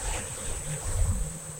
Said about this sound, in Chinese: 我们再一样静静的闭上眼睛，请听这边的海浪声，一波一波的这么安静，又这么舒服